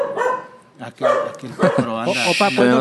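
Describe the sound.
A dog barks in a quick series of sharp, loud barks, overlapping with people talking.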